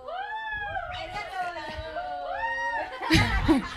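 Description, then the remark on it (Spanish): A cat meows repeatedly in drawn-out, wavering cries, loud, with a short burst of noisy movement near the end. “A ver qué le pasa el gato.”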